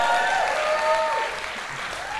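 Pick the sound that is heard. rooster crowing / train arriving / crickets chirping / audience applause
audience applause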